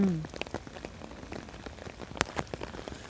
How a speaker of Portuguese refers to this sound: Olha, é chuva tomando conta de tudo.